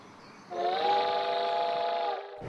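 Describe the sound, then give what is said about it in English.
A steam train whistle sounds once as the train departs, a loud sustained harmonic blast lasting about two seconds with a slight rise in pitch at the start, then cuts off abruptly. “And laughing for no apparent reason, we all boarded the train.”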